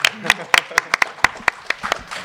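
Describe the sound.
Sparse audience applause: a dozen or so sharp, separate hand claps at an uneven pace, fairly loud, with faint murmuring voices underneath at the start.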